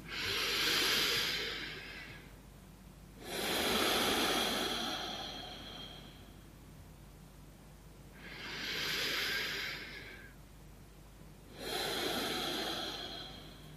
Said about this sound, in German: So, du nimmst ein paar schöne, wunderbare Atemzüge.